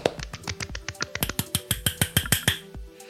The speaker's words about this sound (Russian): Вы тоже по пузу себя хлопаете?